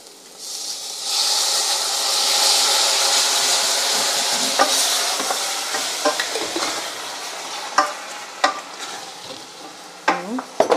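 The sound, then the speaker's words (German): Tomato passata and spices sizzle loudly in a pan as the spices toast and water evaporates from the passata, thickening it, a steady bright hiss that starts after a second and holds, with a few clicks and scraping stirs toward the end. “Genau, das wird jetzt ja so ein, so ein richtig dicker Plemp und man merkt, dass halt sofort das Wasser aus den, aus den Tomaten, aus den passierten Tomaten verdampft.”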